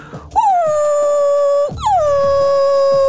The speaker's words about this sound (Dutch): Wat bedoelt de hond als hij zo blaft?